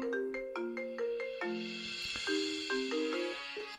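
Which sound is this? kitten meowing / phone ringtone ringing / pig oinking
phone ringtone ringing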